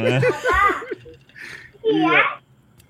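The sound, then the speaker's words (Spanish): A young child's voice comes in two short, high-pitched bursts of babbling and giggly chatter, clear, separated by a brief quieter pause. “Ahí, escucho esa voz.”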